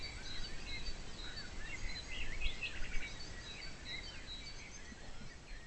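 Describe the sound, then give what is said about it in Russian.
A nightingale sings steadily throughout, with bright, rapid chirps and warbling trills over a soft background hiss and low rumble. No one speaks. “А еще слышите, как наш соловушка щебечет.”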